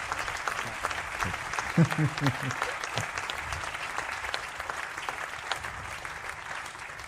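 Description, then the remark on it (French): Steady applause from an audience for the camera operators fills the whole stretch, a dense crackle of many clapping hands, with a brief voice rising over it near the start. “Je, ne connais pas tous les prénoms, mais je pense qu'on peut les applaudir fort tous les, caméramans que vous voyez derrière les caméras.”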